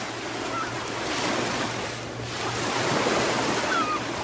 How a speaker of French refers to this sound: Ah, juste ça, je pourrais mettre le son du Pacifique en boucle et ce serait déjà un gros bonheur.